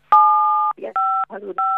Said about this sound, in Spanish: Senadora, me parece que se están tocando unas teclas del teléfono.